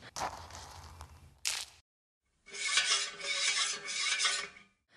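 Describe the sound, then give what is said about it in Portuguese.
Gritty, rasping grinding of a lionfish spine being pounded into fine powder in a mortar for a potion, in scraping strokes: a long rub, a brief sharp one, a pause, then a steady pulsing stretch of grinding. No voices. “Coloque a espinha de peixe-leão na alfomatriz e bata até obter um pó fino.”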